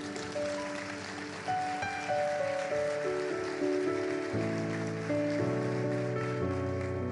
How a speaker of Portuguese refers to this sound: Aplaude Jesus, pode aplaudir.